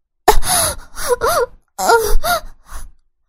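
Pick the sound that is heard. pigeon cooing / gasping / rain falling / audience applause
gasping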